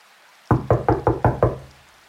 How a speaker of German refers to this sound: Aber dann klopfte es noch einmal sehr laut und deutlich.